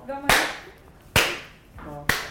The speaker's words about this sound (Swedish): säger man något när man klappar.